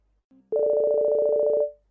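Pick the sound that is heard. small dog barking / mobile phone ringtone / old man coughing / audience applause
mobile phone ringtone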